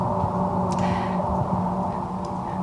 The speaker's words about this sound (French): Mais voilà, le son de l'univers, on y rêve et on y croit encore. Jupiter serait ce son.